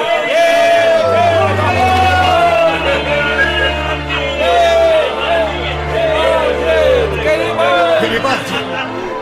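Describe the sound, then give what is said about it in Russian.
A dense crowd at the railway station in Rome, many in red shirts, roars and cheers continuously to greet Giuseppe Garibaldi, many voices blending into a loud, sustained hubbub with occasional rising shouts and whoops, over a low steady rumble. “В Риме, на вокзале, его встретят толпы людей.”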